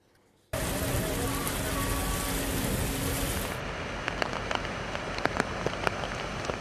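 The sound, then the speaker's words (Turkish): Heavy rain pours down over an earthquake-hit region in a steady, dense hiss that starts abruptly and fills the scene, with scattered sharper drips and splashes popping through near the end. “Kuvvetli yağmurla bir kez daha afeti yaşadı deprem bölgesi.”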